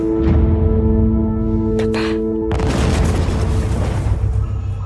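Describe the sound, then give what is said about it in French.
A loud cinematic blast erupts midway in a hotel attack scene from Nicolas Saada's film Taj Mahal, giving way to a dense roar of rumbling explosions and sharp gunfire, after a tense stretch of droning score punctuated by a couple of shots. “Il y a des coups de feu, il y a des gens qui parlent très fort, qui hurlent.”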